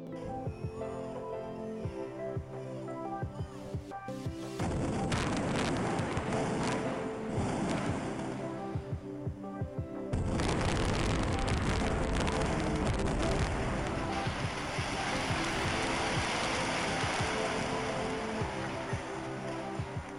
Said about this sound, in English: What you heard there was the implosion of the Executive Inn Rivermont.